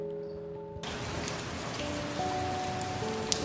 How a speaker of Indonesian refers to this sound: Suara rintik air hujan yang mulai mereda di atas kenangan yang ia buat sendiri, membangkitkan kenangan dan romansa yang syahdu bagi penghuni semesta, termasuk sepasang kekasih yang ditakdirkan Tuhan satu ini.